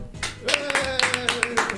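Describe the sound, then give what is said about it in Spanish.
Brief applause: a run of sharp hand claps at a quick, uneven pace, with a sustained voice sounding beneath them. “Aplauso.”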